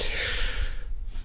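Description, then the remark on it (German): A male cat sneezes once: a short, breathy burst of hissing noise that fades quickly into quiet, with no talking. “Und niesen muss er auch noch.”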